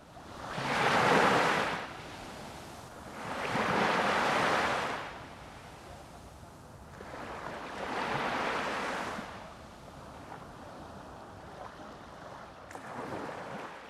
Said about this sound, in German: Es rauscht im Meer.